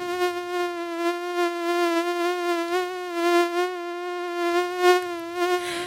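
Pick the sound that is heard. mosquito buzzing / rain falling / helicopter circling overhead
mosquito buzzing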